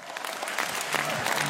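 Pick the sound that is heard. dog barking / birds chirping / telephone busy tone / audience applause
audience applause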